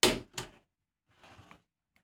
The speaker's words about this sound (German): Ja, machen wir ruhig auf die Tür. Ich mach mal auf. Ja.